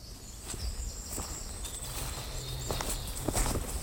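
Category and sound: footsteps walking through a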